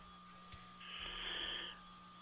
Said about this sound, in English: Hello? Are you there? I can hear you. Hello. Hi. I can hear you breathing.